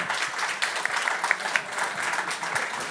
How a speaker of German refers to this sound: Gratulation an alle. Ja, Gratulation. Nochmal einen kleinen Applaus für unsere Gewinner.